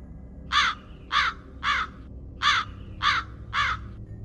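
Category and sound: bird, crow cawing repeatedly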